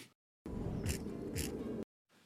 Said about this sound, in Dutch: het was de Sonos Rome, De draadloze speaker van Sonos, die Erwin in zijn video onder water hield